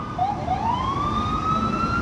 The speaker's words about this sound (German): Ja, hier ist es. Es ist laut, typisch für die Straßen von New York.